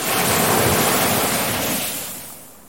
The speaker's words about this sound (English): I shiver, the small loin cloth providing little cover as another wave crashes against a nearby rock